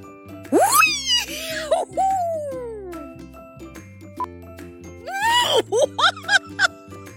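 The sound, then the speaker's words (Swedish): A voice screams into the microphone, imitating a cannon blast with loud, sweeping howls, then a quick series of shorter yelps, all over a steady musical backing. “Sedan var det det här kanonljudet jag får börja sitta och bara skrika rakt in här.”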